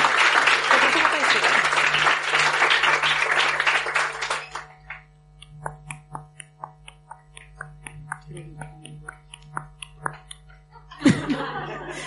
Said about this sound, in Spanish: Aplauso, por favor, que son gratis.